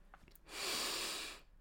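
A single steady nasal inhale, fairly loud, a broad airy hiss swelling for about a second before fading, with no talking.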